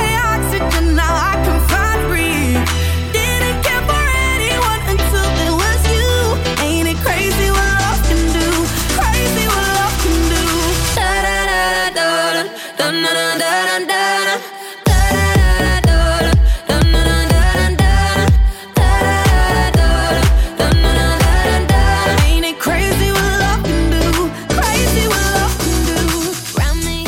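A loud, full-band pop song plays throughout with a sung melody over a steady beat; the bass drops out briefly midway, then the full groove returns.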